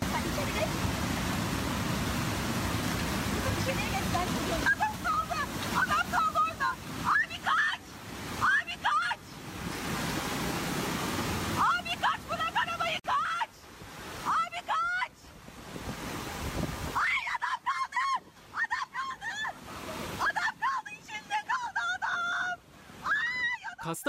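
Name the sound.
rushing floodwater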